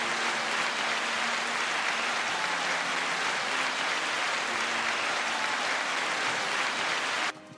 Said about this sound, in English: First and foremost, let's give let's give President Biden a round of applause. Come on, guys.